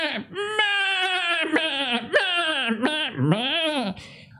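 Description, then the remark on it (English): A person's voice imitates the bleating of a goat, Totes McGoats, giving a speech: a run of five or six quavering, nasal "meh" calls strung closely together, loud, with a wobbling pitch that rises and dips. “To humans, it sounds like this. It sounds like meh, meh, meh, meh.”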